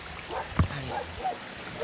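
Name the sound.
flowing river water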